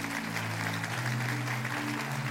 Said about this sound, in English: Two Wednesday nights ago, the Holy Ghost came down in this church and filled over 50 people just like that with the baptism of the Spirit. Can you clap your hands and rejoice to that? That's good stuff.